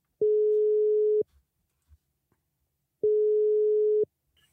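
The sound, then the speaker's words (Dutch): A telephone ringback tone sounds twice while an outgoing call connects, each steady tone lasting about a second with a long pause between, clear with no talking. “En ik ga hem gewoon even bellen.”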